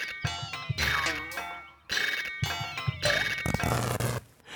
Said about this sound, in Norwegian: I det samme freser sopelimen og rykker til.